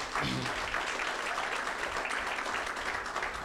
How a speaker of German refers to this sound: Aber na, lasst uns einen Pastor, der im Ausland ist, mit einem kräftigen Applaus begrüßen.